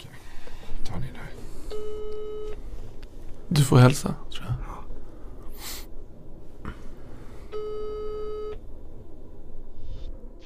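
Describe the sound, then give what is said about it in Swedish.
A phone line rings out twice with steady, buzzy ringback tones about a second long and several seconds apart as a call is placed, while people talk quietly and someone breathes sharply between rings. “Vi ringer till honom och ser vad han säger.”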